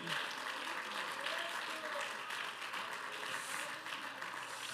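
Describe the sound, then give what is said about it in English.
An audience claps their hands unto the Lord in praise on a morning, dense, steady clapping that holds at an even level for nearly five seconds, a faint murmur of voices mixed into the crowd noise. “Clap your hands unto the Lord and give him praise this morning.”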